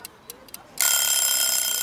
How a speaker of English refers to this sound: Oh my gosh, that's a timer to remind me to attach Chicken to the harness to the wire and to winter up into the oak tree.